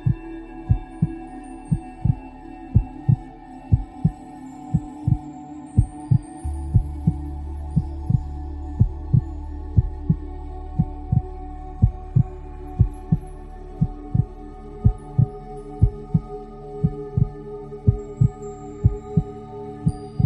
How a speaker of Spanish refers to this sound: Escucha tu corazón, siente cómo cada latido te llena de vida.